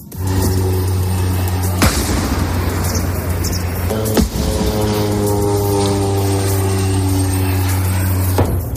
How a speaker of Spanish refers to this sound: así suenan las bombas israelíes desde la frontera con Gaza.